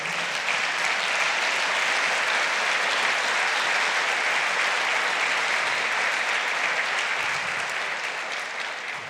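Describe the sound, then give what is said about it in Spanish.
An audience breaks into loud, sustained applause for the Lord, a dense steady roar of many hands clapping that holds for several seconds before easing slightly at the end. “Bien, un fuerte aplauso al Señor.”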